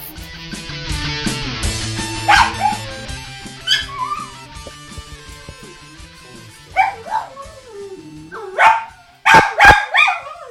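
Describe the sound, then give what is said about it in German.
A dog lets out a series of sharp, high-pitched barks and yips in irregular bursts, growing more insistent toward the end, over a steady low background hum. “Ich glaube, der hat einen Hund gesehen.”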